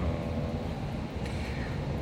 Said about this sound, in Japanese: そこですね、まあ、電車が今走っておりますけど